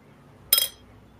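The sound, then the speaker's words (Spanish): A single bright clink of beer glasses holding Fest Beer (5.5% alcohol) touching, with a short high-pitched ring that fades quickly against a quiet background. No one speaks. “Y como tal, cristalería correspondiente.”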